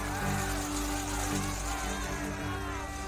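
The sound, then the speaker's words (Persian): A heavy truck engine rumbles steadily, its deep drone holding an even level throughout, with a busy, noisy street background. “راه کامیون رو وا کنید”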